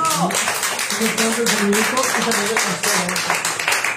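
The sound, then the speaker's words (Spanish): Steady applause from a group for Rafa, a dense, crackling patter of many hands clapping for the full few seconds, with a voice talking over it. “Un aplauso para él.”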